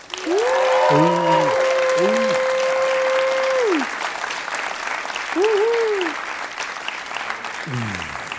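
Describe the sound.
A live audience claps steadily for several seconds, applauding a participant and his question, a dense crackling roar of hands, with a few drawn-out whoops and voices rising over the applause.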